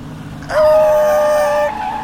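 A white Suburban's tires screech as it fishtails around a corner in a residential neighborhood, one loud, sustained squeal lasting just over a second, a steady high whine with layered overtones, beginning and ending abruptly over a low rumble of background noise.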